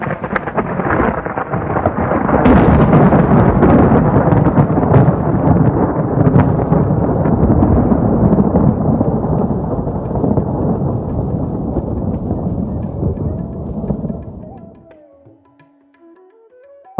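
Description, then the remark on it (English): A huge thunderous crash, representing a demon struck down by Balaram falling like a great hill, swells into a loud, sustained rumbling roar that lasts many seconds before dying away quickly, leaving a faint lingering tone. No voices are heard. “When the demon fell, he made a tremendous sound, and it sounded as if a great hill were falling, being struck by the thunderbolt of King Indra.”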